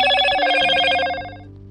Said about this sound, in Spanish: Y en ese momento sonó su celular.